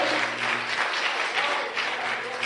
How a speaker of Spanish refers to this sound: Eso, merece, un aplauso. Sí, eso merece un aplauso, iglesia.